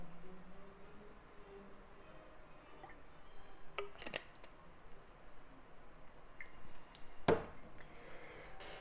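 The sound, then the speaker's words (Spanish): A few sharp, light clinks of a glass of water against a hard surface, with soft handling noises between them and no talking. “Incluso, déjame que vea un poco de agua.”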